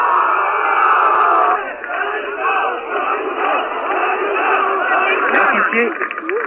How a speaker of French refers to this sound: foule qui est restée silencieuse pendant trois heures, s'est maintenant euh, déchaînée et contenue à peine par les policiers qui se sont massés eux aussi devant la maternité